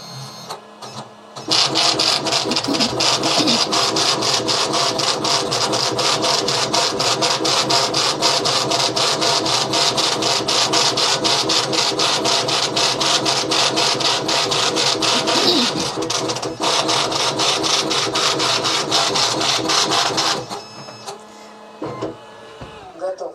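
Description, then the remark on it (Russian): A loud, rapid mechanical hammering from a braille embosser printing one copy of a single page of text, running steadily for about twenty seconds with dense repetitive impacts, then stopping abruptly. “Вот мы сейчас текст какой-нибудь распечатаем.”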